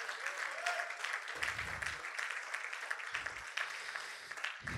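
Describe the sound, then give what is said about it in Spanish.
A large church audience applauds loudly and steadily, giving applause to the Holy Spirit, a dense wash of clapping filling the space, with brief low rumbles and scattered voices mixed into the crowd noise. “¿Cuántos le dan ese fuerte aplauso al Espíritu Santo de Dios?”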